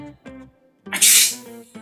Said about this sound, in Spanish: Estornudó la mujercita. Estornudaron sus amigas. Y venga a estornudar todas a la vez.